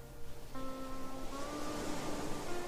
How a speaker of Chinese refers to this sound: 跟随我的声音，以及周围的海浪阵阵，一起进入这次自我疗愈、洗涤和修复的旅程。